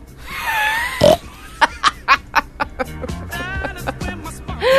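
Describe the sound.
A person imitates a pig, making a loud run of rough, guttural grunts and snorts in quick, uneven bursts, with some higher squealy tones mixed in.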